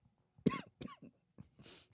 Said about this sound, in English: You have a cough going on? Nope. Nope. I'm healthy.